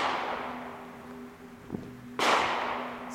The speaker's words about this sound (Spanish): Los tiros son acá, boludo, me da mucho miedo. Son acá. Son acá dentro.